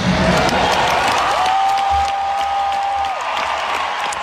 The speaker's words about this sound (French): il y a eu une ovation de plusieurs minutes.